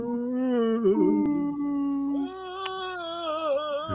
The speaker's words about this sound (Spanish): Son instrumentos musicales primitivos de estas tierras pero estos parecen caracoles de guerra.